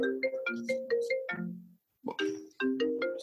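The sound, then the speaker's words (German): A phone rings with a bright, melodic ringtone, a repeating pattern of quick musical tones that pauses briefly and then starts again, fairly loud. “jetzt klingelt es auch.”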